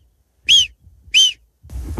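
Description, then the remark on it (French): A person imitates a marmot's alarm whistle with two short, loud, shrill whistles about half a second apart, followed by a burst of breathy noise or laughter. “est-ce que tu as appris avec toutes ces années à imiter le sifflement de la marmotte Tu vois vraiment que je...”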